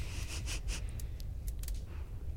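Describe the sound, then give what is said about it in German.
A deep, steady downslope wind roars and moans without pause, a howling sound fairly low for whistling wind, rumbling, with occasional brief hissing gusts breaking through above the continuous drone. “Ja, du hast ja so ein, so ein ja, heulendes Geräusch, was für einen Windpfeifen relativ tief ist.”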